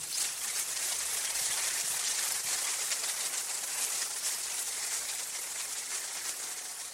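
A crowd claps continuously for about seven seconds in applause for Jesus, a dense, steady wash of many hands with no pauses and no voices, fading only slightly at the end.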